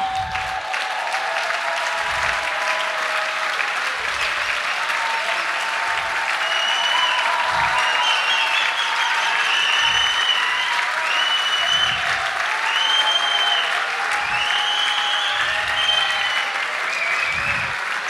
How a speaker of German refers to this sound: Applaus für die Klasse aus dem Kügel Loh.